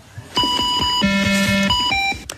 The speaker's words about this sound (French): on a joué avec euh, ce bruit de, de jeu télé, écoutez bien.